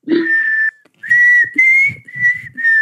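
Someone attempts a whistle: a steady, high tone held in several short bursts separated by brief gaps, wavering slightly in pitch with breathy noise underneath, fairly loud and without talking.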